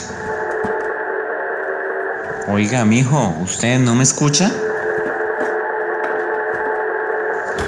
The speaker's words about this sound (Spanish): Oiga, mi hijo, usted no está escuchando esa música como muy alto. Vea que hasta aquí le alcanzó a oír.